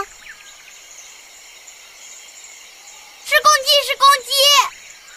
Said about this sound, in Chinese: 公鸡，right，公鸡的叫声是哦哦哦，哦哦哦。